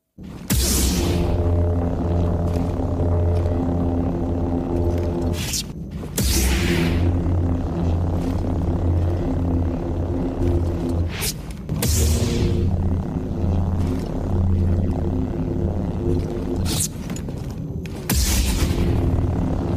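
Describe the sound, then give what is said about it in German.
A series of lightsaber ignitions edited back to back: each opens with a bright crackling whoosh, then settles into a loud, steady, low buzzing hum until the next blade snaps on. “über das Geräusch des, ich sag mal, gezündeten Lichtschwerts äh, sprechen”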